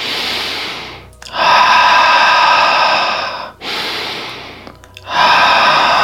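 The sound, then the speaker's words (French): Deep, slow breathing during a yoga exercise, seated with the legs drawn together in butterfly pose, in a steady cycle: two long inhales and two long exhales, each a loud, airy rush of breath with brief pauses between, and no talking. “Avec la respiration.”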